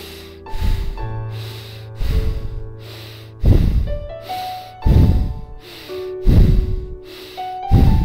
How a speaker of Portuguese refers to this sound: Podemos começar um novo ciclo. Eu vou guiar pela minha respiração.